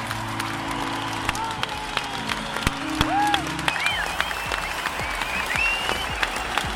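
Dense, sustained applause from a large concert audience at the Coliseum in A Coruña, many hands clapping at once in a steady roar, with a few faint whistles and shouts rising over it.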